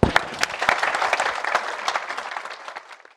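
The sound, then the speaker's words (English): An audience applauds the panelists at an Atlantic Council event with dense, continuous clapping from many people that starts strong and gradually thins out over a few seconds. “Please give our thanks to the panelists.”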